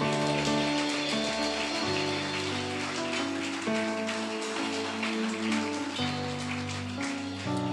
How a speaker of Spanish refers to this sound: Vamos, dale el aplauso al rey.